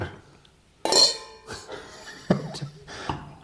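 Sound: glasses clinking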